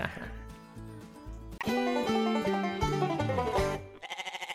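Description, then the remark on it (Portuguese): A short melodic jingle of stepped, bright tones ends in a goat's quavering, pulsing bleat, loud and close, heard alone right at the finish. “Pode Cabra, um podcast animal.”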